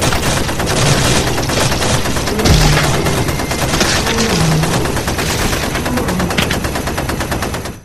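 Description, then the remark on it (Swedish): Loud, sustained bursts of rapid gunfire crackle without pause for several seconds as an officer shoots a wolf with a short-barreled rifle, a dense machine-gun-like rattle with no talking over it. “Och han skjuter den här vargen.”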